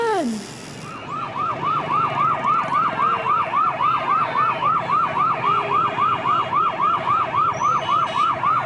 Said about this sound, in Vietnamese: Quý vị đang nghe thấy tiếng xe cấp cứu chạy vội vã trên phố Ở tập trước, khi kết thúc phần 1 của tập phim Người đàn bà bí ẩn Tiếng xe cấp cứu vang lên ngay sau vụ tai nạn